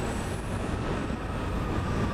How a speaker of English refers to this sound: Hey, we're starting our first episode right out here at East Falls Church Metro Station on the Orange and Silver Lines.